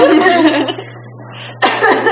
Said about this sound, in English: Let's all cough it out, guys.